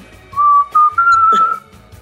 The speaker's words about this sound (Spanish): la canción más famosa del mundo, ¿saben cuál es? ¿Cuál es? Mírense, la, voy a silbar, a ver si la descubren.